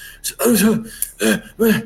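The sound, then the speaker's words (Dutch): A wounded man, shown as a flickering hologram, coughs three times in quick succession, each cough a short, throaty, voiced burst, with brief pauses between and no talking. “Het hologram dat flikkert en is, is, onstabiel, maar hij is wel heel herkenbaar Hij begint zo te hoesten.”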